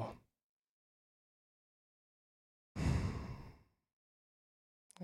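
A single deep breath, drawn in fairly loud, lasting about a second amid near silence. It sounds like a breathy, sigh-like inhale.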